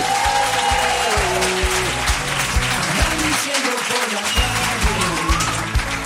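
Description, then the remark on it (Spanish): An audience applauds steadily for about six seconds for Berti, an insurance company, a dense, even wash of clapping that stays loud throughout, with low musical tones running underneath. “Un aplauso para Berti, claro que sí.”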